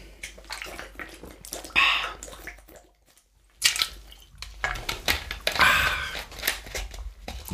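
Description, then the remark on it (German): Water pours into a glass in a few splashy bursts, with a brief silent pause in the middle, followed by soft handling sounds and sips; no one speaks. “Na gut, ich trinke jetzt mal ein Wasser.”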